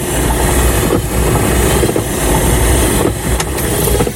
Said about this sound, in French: Là il y a un bruit typique là. Ouais, c'est des essuie-glaces.